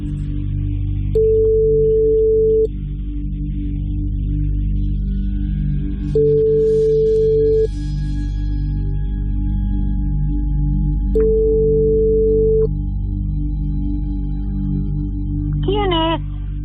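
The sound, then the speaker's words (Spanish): A steady ringback tone of an outgoing call to a mobile phone repeats three times at even intervals, each long beep separated by a pause, over a low constant hum, before a brief rising chirp at the end as the call connects. “Bueno, pues le, la rellamamos hasta que le reviente.”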